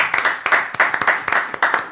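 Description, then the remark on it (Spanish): Steady audience applause after a performance, many hands clapping in a dense, crackling wash with sharp individual claps poking through, fairly loud and continuous, no voices on top. “Voy a aprovechar esos estos aplausos tan gentiles para invitar a todos al nacimiento de Tango por la Identidad.”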